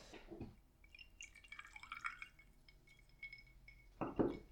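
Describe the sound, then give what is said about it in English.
Scotch whiskey glugs and trickles into a glass, the rising pour ringing with a bright glassy tone, framed by a soft knock at the start and a louder clunk near the end. “Hold on, I have to pour my uh, whiskey real quick.”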